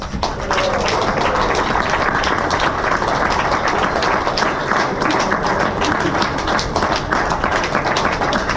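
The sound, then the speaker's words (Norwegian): A crowd applauds the coaches Marti Cifuentes and Jordi González steadily, a dense wash of many hands clapping at an even loudness throughout, with faint voices mixed into the noise. “Så nå syns jeg vi kan gi en varm applaus til våre trenere Marti Cifuentes og Jordi González.”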